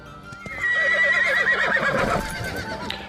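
A horse whinnies loudly, a wavering, descending call lasting about two seconds, followed by softer snorting and faint hoof sounds.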